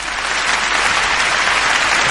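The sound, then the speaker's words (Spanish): Loud, steady applause from an audience welcoming a guest on a radio program, a dense wash of many hands clapping continuously with no pauses and no voices standing out. “¡Fuertes aplausos!”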